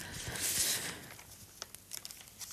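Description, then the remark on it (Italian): Crisp rustling of newspaper pages being handled and turned, a loud swishing sweep followed by a few quieter crinkles and crackles, with no voices. “Prendiamo il Corriere della Sera”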